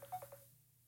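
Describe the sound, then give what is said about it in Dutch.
A quick run of about four short electronic telephone dialing tones, fairly faint, followed by near silence with a low steady hum underneath. “Wat is dit? Ze belt net.”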